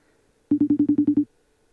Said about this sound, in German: Hört ihr es klingeln? Natürlich.